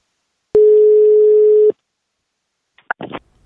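A single loud, steady telephone ringing tone sounds for just over a second, a flat mid-pitched beep that cuts off cleanly, followed after a pause by a few brief, fainter voice-like bursts. It is a call being placed to Manchester City's Pep.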